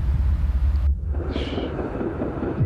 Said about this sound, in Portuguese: Deixa passar, deixa passar. É o trem.